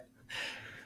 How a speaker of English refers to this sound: Oh, that's my dog.